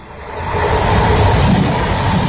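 train passing on rails

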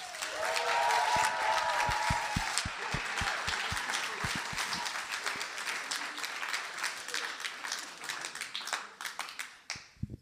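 audience applause

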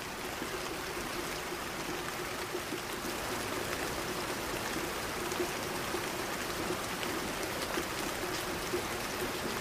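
rain

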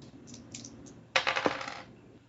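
two dice being rolled

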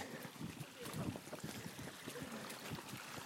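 water running

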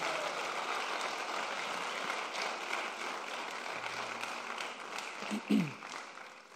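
audience applauding

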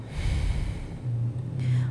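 slow exhale

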